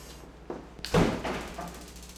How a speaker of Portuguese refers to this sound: A pequena explosão foi provocada para demonstração em um ambiente controlado e tomando todos os cuidados de segurança. Mas imagina o que poderia acontecer se fosse dentro da sua casa.